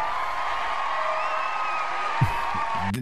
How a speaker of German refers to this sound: Da, da gibt es mal ein Applaus, natürlich.